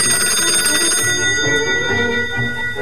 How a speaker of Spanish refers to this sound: El teléfono. Están llamando al teléfono y no puedo moverme. Atende vos.